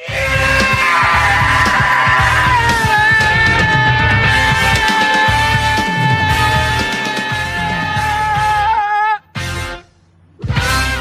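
A long, loud, sustained scream rides over a busy, driving music track, wavering near the end before breaking off, with brief gaps and a final burst of music.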